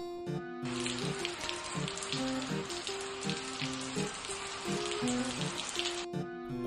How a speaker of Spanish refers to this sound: Cuando llovía se mojaba.